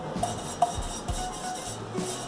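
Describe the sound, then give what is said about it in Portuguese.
A paintbrush sweeps thick wall paint across a frying pan, making soft, scratchy swishes in a few uneven strokes with faint metallic clinks, and no one speaking. “vamos então, pintar isso aqui, que eu nem sei o que eu vou fazer com essa panela.”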